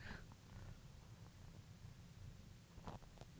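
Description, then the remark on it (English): A small male cat weighing about two pounds purrs steadily into the microphone, a low rumbling hum with soft rustles and a couple of brief clicks near the end. “If I can get him purring one of these times, I promise you I will.”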